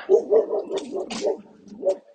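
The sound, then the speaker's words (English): A dog barks in a quick run of short barks, about half a dozen in a row, then one more bark after a brief pause, on Duckett's Passage. “Uh, the dog there.”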